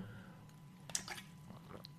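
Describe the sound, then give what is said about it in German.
Quiet sipping of water from a glass: a few soft wet slurps and small mouth sounds spread over two seconds, with no talking. “Ich hebe mein Wasserglas, was hier neben mir steht, an und sage herzlichen Glückwunsch.”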